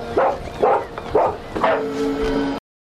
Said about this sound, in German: bellte laut und sprang immer wieder am Fenster hoch.